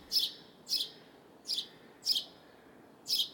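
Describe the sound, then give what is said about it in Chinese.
A house sparrow foraging on the deck of the suspension bridge linking the Chunlin Hotel to the Banna botanical garden gives five bright, short chirps. They repeat at a steady pace of roughly one every two-thirds of a second, clear above a soft background hiss, with no one speaking. “不一样的鸟种，首先一个就是会在吊桥地面上不停的找东西吃的家麻雀”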